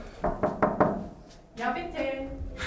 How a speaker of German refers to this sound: Die Tür ist angelehnt, ich klopfe mal.